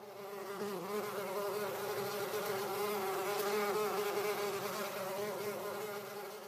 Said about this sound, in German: Der Frühling ist auf jeden Fall nicht mehr zu überhören, es summt und brummt.